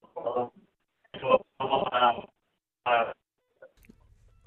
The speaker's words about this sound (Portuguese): a ligação por telemóvel está muito, muito má, não o consigo entender.